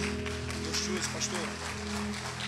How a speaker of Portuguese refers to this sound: Aplauda o Senhor mesmo. Aplauda a Deus pela vida dele. Essas palmas não são para nós, né, pastor? São para Jesus.